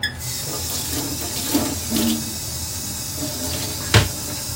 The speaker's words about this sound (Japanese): じゃあ皿洗っていきます